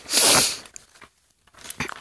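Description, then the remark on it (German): The speaker's brother leafs through the pages of a paper booklet he was given: one loud, crisp rustling flip, a few soft paper noises, then a second shorter flip. No voices. “Und das blättert er gerade durch.”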